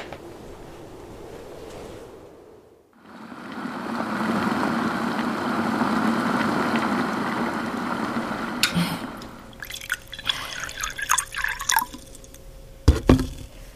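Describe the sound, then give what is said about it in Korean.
Marigold flower tea pours in a steady, gurgling stream into a cup for about six seconds, followed by a few light clinks and taps of china. No one speaks. “자, 너들어와서 어, 따뜻한 차 한 잔 해요.”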